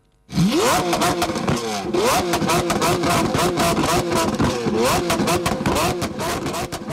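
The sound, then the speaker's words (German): A car engine revs loudly and repeatedly as a show-off driver drives through the streets, its pitch sweeping up in several sharp bursts with a rough, crackling roar that fills the whole clip, without talk. “Während der Corona-Krise sind vor allem in der Nacht Autofahrer mit aufhüllenden Motoren durch die Straßen gefahren.”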